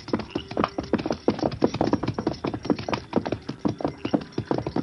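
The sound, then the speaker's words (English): A horse's hooves clip-clop in a steady, brisk rhythm as it is ridden down a slope to the side of a creek, each hollow knock distinct, continuing without pause and with no voices. “Pearlie mounted and rode down the slope to the side of the creek.”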